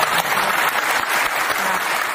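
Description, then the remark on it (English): Sustained applause from a large audience responding to a point a speaker has just made, a dense, steady wash of many hands clapping at once, fairly loud and continuous throughout with no voices standing out. “She, she's getting a big applause here. They love that point she just made.”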